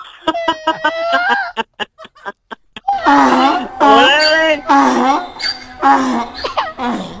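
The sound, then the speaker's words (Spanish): A voice imitates a donkey braying: a drawn-out, wheezy hee-haw with stuttering gasps, then several loud, honking, up-and-down bray bursts. “Mi pareja es un burro. Es un burro.”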